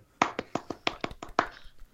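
Brief, sparse applause from just a few people, about nine sharp, bright claps at a loose, uneven rhythm, moderately loud, with no voices.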